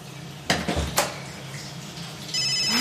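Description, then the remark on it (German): A few clattering kitchen knocks, then a mobile phone starts ringing with a bright, steady electronic ringtone that continues to the end. No one speaks. “da klingelt ein Handy kein Problem.”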